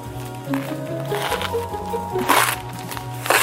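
Chocolate buttons being popped open by two boys celebrating being cast in Charlie and the Chocolate Factory, in a series of sharp crackling pops and crunches, irregularly spaced, the loudest bursts near the end, over a steady tonal hum.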